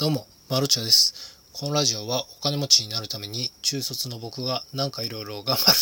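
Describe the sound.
Bell crickets chirp steadily at night, away from the city centre, a thin high ringing that persists under a man speaking throughout.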